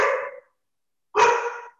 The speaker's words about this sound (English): FISM has a GSP, and if anyone doesn't know, GSPs are assholes. Great dogs, but they can be assholes.